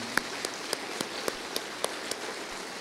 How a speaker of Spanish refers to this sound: ¿No le quiere dar un aplauso al Señor por eso, hermano? Gracias, Señor.